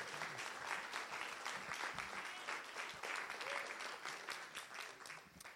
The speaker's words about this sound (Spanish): Solo cuatro aplaudieron porque solo cuatro lo entendieron.